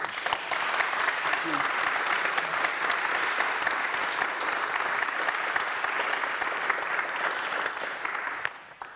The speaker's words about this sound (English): Um, I think a round of applause for our panelists.